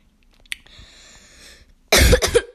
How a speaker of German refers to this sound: Entschuldigung, dass ich direkt ins Mikrofon husten. Aber ich kann irgendwie nichts dagegen tun.